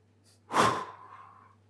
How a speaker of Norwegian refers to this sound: og så har du gjespen. og Det er også en sånn mekanisme som kroppen også har for å få en avspenning. At du gjesper og kanskje strekker samtidig òg.